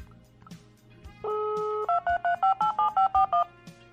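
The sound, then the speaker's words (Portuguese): A steady dual-tone landline telephone beep, then nine quick keypad dialing tones pressed in an even rhythm, each a short, clear electronic beep at different pitches, moderately loud over a faint background hum. “Esse é o barulho de tom.”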